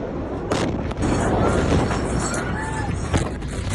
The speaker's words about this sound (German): Dann knallt es auf einmal und ein riesiger weiß-roter Rauchpilz steigt in die Luft. Es sind gerade 2750 Tonnen Ammoniumnitrat in die Luft geflogen, das am Hafen gelagert wurde.